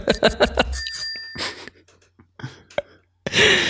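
A bicycle bell sound, triggered by pressing a button on a device, rings with a quick burst of bright metallic dings and a lingering tone, followed by breathy sounds and a loud hiss at the end.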